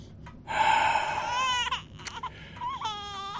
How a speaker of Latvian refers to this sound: Ieraudājās mazais jēzus šūpulī aiz aizskara. Īva noteica amen, pārmeta krustu un gāja pie bērna.